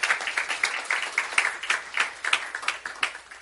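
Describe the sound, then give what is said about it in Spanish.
An audience applauding the Lord, a dense, steady patter of many hands clapping with rhythmic surges and no clear voices, holding at a moderate level throughout. “Démosle un aplauso fuerte al Señor, aleluya.”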